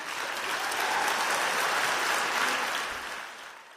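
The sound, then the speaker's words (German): An audience applauds and cheers after a speech, a dense wash of clapping that swells, holds steady for a few seconds, then begins to fade toward the end. No one speaks over it. “wenn ich mir das jetzt so anhöre und auch diesen Jubel wahrnehme, dann hat man den Eindruck, da ist was Neues auf dem Markt und wir erobern das jetzt für uns so.”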